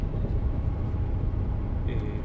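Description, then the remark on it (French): A bus engine idles, a steady, heavy low rumble that holds throughout, with a brief high-pitched whine or hiss near the end. “Là, c'est sûrement un bus euh, réquisitionné par la TCDD, la SNCF turque.”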